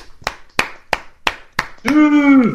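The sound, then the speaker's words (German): A small, sparse round of applause for Leonardo Bonucci: five slow, evenly spaced hand claps, sharp and fairly loud, followed by a drawn-out voiced exclamation that sounds like a cheer. “Einen kleinen Applaus für Leonardo Bonucci.”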